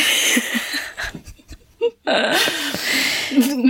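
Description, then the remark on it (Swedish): A short, rough burp, surrounded by loud breathy, noisy vocal sounds and brief pauses. “Jag rapade precis.”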